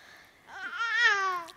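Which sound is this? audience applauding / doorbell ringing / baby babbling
baby babbling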